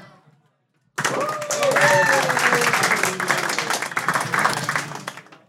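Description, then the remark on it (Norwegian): After a brief pause, an audience voting by applause for the best lightning talk breaks into sustained applause, dense clapping from many hands lasting several seconds, with some voices and cheers mixed in before it ends abruptly. “eh, med den enkle måten å ta applaus fra publikum.”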